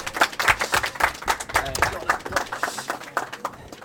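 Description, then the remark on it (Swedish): A small group applauds Anton Kralj with brisk, irregular claps that run steadily for about four seconds, a few voices murmuring underneath before the clapping thins out at the end. “En applåd för Anton Kralj!”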